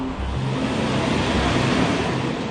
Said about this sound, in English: The first self driving car won't be a car at all. It'll be a truck. This is the Freightliner Inspiration, a prototype truck that is legally roaming the highways of Nevada.